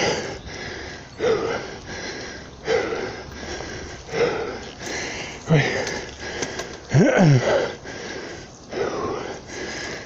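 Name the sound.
heavy panting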